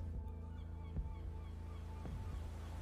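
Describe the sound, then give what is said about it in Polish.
Gulls cry a few times over a steady low rumble of harbor ambience, with washing waves and a droning hum filling the background. “mewy oraz szum fal.”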